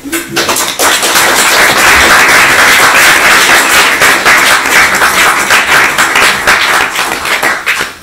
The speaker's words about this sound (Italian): per cui, cioè, non so, chapeau, io penso che si meriti un grossissimo applauso.